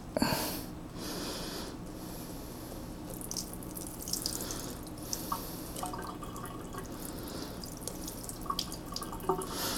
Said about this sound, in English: Okay, once you're done with that, you're going to want to drain your rice.